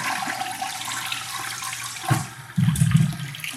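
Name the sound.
toilet flushing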